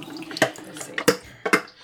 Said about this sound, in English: And that is filtered water with a drop or two of photo flow. You cannot use too little photo flow. No such thing as too little photo flow. Hmm. You barely need any. Just enough to break the surface tension of the water.